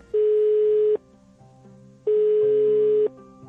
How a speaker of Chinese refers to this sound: 好，您拨打的电话正在通话中，请稍后再拨。 The number you have dialed